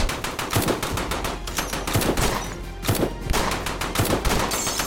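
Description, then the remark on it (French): Rapid bursts from a Browning Automatic Rifle, a heavy-calibre weapon, fired by Clyde Barrow at police cars: sharp repeated cracks in quick clusters with brief pauses between volleys, loud and continuous with no voices. “il se met à tirer en rafale. Le Browning Automatic Rifle est une arme puissante, utilisant des munitions de gros calibre.”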